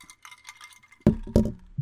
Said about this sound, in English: I'll drink to that. Same. Clink to that.